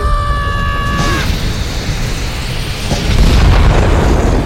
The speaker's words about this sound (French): C'est plus un signal d'alarme, ça, c'est carrément une giga éruption. On dirait qu'on a un petit problème de sonnette, les amis.